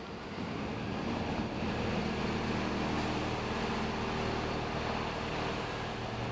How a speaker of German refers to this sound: Und jetzt, jetzt ist es soweit. Ein Müllauto fährt rückwärts in die Halle ein.